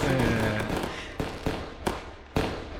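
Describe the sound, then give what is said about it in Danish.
Fireworks crackle and boom in a dense, sustained barrage, with several sharp bangs punctuating a continuous fizzing roar; no one speaks. “Der skal næsten også fyrværkeri til, skal der ikke det?”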